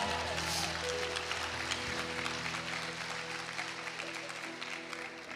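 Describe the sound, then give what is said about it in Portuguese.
An audience at a church service claps for the Lord steadily for the full stretch, a dense, even wash of applause while low sustained musical tones hum underneath. “Aplauda o Senhor.”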